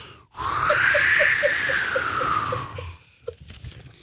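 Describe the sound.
A voice imitates howling wind with a single breathy, whistling whoosh that rises and slowly falls in pitch for about three seconds, fairly loud, followed by a few soft breaths.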